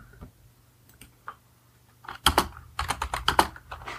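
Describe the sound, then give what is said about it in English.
Computer keyboard typing: a few scattered taps at first, then a quick, uneven burst of loud clicking keystrokes in the second half, with no voices. “Excuse my typing.”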